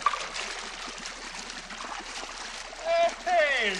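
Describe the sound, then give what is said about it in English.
Steady churning of bubbling water from the jets of a whirlpool bath in a scene from the film Trading Places, running continuously, with a couple of brief higher-pitched voice-like sounds rising over it near the end. “It's a whirlpool bath, sir.”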